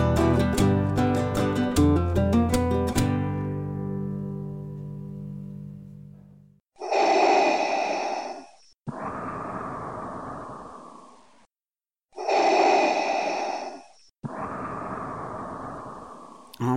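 A few fading piano chords give way to loud snoring: two full breathing cycles, each a rasping inhale followed by a long, rattling exhale, with no talking.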